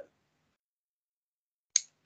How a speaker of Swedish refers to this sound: Fan, nu tappade jag pennan också.